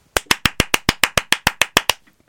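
A crisp, steady run of about a dozen sharp hand claps in quick even rhythm, loud, with no voices, ending abruptly after roughly two seconds; a signature applause played to celebrate a listener's birthday.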